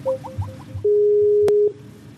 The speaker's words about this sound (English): The fuck? It's an Amber Alert.